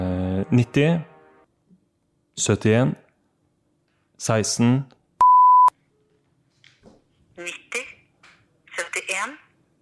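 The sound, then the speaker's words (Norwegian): A single short, steady telephone tone beeps loudly mid-clip while a phone number is dialed to call the man who runs a company, set between brief bursts of people talking. “har funnet en del nummer på han som driver det selskapet, så jeg tror vi bare skal prøve å ringe han nå.”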